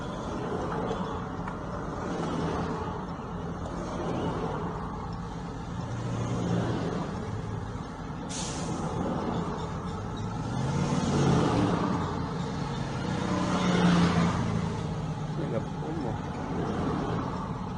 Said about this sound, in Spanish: sino de centenas de hombres armados arriba de estos más de 20 vehículos, como usted va a ver en las imágenes. Esto es en la carretera que comunica hacia la Costa Chica con Tierra Colorado, y en Tecuanapa, la imagen que usted va a ver.